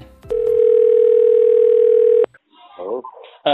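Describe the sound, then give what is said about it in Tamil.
A loud, steady telephone dial tone hums for about two seconds after a brief click while a call is placed to the taluk office in Madukkarai, then cuts off, followed by a moment of quiet and a short burst of speech. “மதுக்கரையோட தாலுக் ஆஃபீஸுக்கு கூப்பிட்றோம் அங்கே கூப்பிட்டு அங்கே ஏதோ பண்ண முடியுமா அப்படிங்கிறத பார்க்குறோம்”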